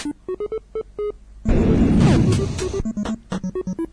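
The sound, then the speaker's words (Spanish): Retro video game losing sound from a game played on an emulator as the player loses: a run of short electronic bleeps, then a harsh noisy crash lasting about a second, followed by another quick string of clipped chiptune beeps, fairly loud. “Ah, pero pierde, así suena como dices tú.”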